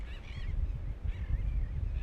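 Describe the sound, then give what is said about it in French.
A flock of birds calls in two bursts of honking cries over a steady low rumble of wind or outdoor noise, with no one speaking. “Et quand nous voyons ce que ces oiseaux devant nous, en groupe, en solidarité, ensemble, sans aucun dérangement, euh, avec toute une complicité entre eux, sans que l'un ne dérange l'autre.”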